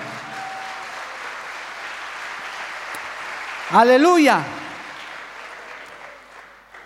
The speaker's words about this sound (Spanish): Alabado el nombre de Jesús. Dale un aplauso a Cristo, hermano. Su nombre, gloria.